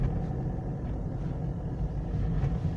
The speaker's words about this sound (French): Mais pour le moment, on va commencer par garer la voiture.